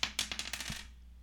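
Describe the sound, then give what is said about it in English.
Dice are rolled across a table right next to a microphone, a quick burst of bright rattling clicks that bounce and settle within about a second, with no voices. “All right, let me roll right next to the mic so you can hear the dice roll.”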